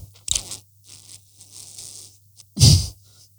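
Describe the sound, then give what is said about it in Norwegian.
Someone drinking chocolate milk from an extremely small carton, drinking right up against the microphone: scattered soft slurping and crinkling noises, then one loud gurgling slurp toward the end, with a low steady hum underneath and no talking. “Jeg skal prøve å Tror det blir tatt opp hvis jeg klarer å drikke helt inntil mikrofonen.”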